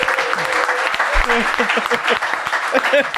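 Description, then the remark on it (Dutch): A club audience at a show claps steadily in dense, continuous applause lasting a few seconds, with scattered voices and murmurs mixed into the clapping. “Geef nog een applaus”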